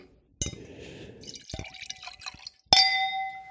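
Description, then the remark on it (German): Wine glugs briefly into a glass as it is topped up, followed by two sharp glass clinks, the second ringing out clearly. No one speaks. “Wirklich, warte mal, ich muss mal ganz kurz einen Wein nachschenken.”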